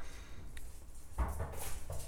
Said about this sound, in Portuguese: Mas eh, uma hora é a série que meu pai tá vendo, outra hora é o caminhão passando, agora é o cachorro também que ficou maluco.